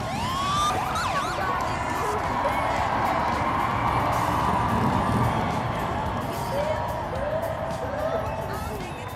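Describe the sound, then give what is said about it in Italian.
Sirens of police department motorcycles opening a march on June 30 in memory of Stonewall wail and sweep over the roar of a large outdoor crowd, with scattered cheering and chatter throughout; later siren bursts sound shorter. “Il 30 giugno scorso le moto del Dipartimento di Polizia hanno aperto la marcia”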